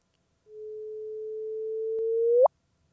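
A sonified chirp of the second of the first gravitational waves ever heard: a smooth, fairly bright tone holds for about two seconds, slowly swelling in loudness, then whips sharply upward in pitch and cuts off abruptly. No voices.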